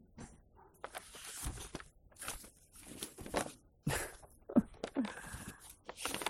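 Paper pages rustle and flip in a series of quick, crisp bursts as someone searches for their place while reading from the Book of Ruth, shuffling irregularly for several seconds, with a brief laugh partway through.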